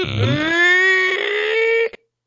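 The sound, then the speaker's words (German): A single drawn-out, high-pitched door creak rises quickly in pitch and then holds a strained, whining tone for nearly two seconds before stopping abruptly. It is fairly loud, with nothing else around it. “Ein knarzendes Geräusch von der Tür.”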